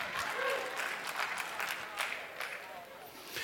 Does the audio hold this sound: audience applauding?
yes